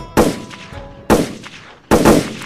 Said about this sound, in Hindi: उन्होंने सुरवे की छाती और कंधे पर पांच गोलियां दाग दी थी